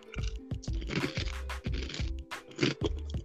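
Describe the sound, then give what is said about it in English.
Loud crunchy chewing of frosted flakes breakfast cereal, a steady run of crisp bites and grinding crunches repeating every fraction of a second, with no talking. “And by the way, I'm eating frosted flakes.”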